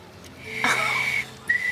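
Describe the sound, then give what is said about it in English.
A man practicing whistling whistles a thin, breathy, wavering note that holds for most of a second, breaks off, then returns briefly with a steadier pitch, with no talking. “I've been told girls never trust a man who can't whistle, so I thought I should practice.”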